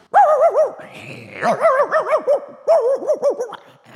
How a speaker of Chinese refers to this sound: 天哪，嗯，那是什么声音呢？ 哎呀，是一只鼻子很灵的狗，快跟我走！